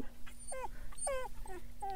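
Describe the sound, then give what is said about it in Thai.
A domestic dog barks in a quick run of high, whiny yelps, five or six calls in about two seconds, fairly loud over a steady low hum. “จากนั้นเมื่อหมาป่าไปแล้วหมาบ้านก็เริ่มส่งเสียงเห่า”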